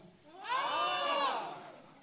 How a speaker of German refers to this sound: Ihr schreit, ah! Einmal bitte alle.